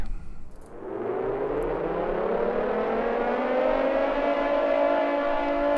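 A civil defense siren at the start of a music track winds up from a low growl into a loud, steady wailing tone that swells and holds for several seconds, with no voices present.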